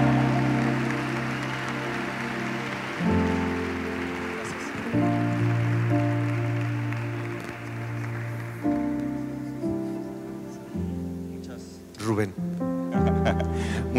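An audience applauds in a dense, steady crackle over loud sustained music, the clapping gradually thinning and fading away while the music carries on.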